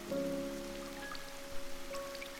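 A sudden summer evening rain shower hisses and patters evenly across the whole moment, with scattered brighter drops and a low sustained hum running underneath; no voices.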